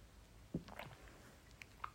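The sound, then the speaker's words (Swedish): Faint wet mouth noises of someone slurping coffee: a short soft sip followed by a few small squishy clicks and swallows, with no talking. “Nu slurpar jag på mitt kaffe för I mean who the fuck cares?”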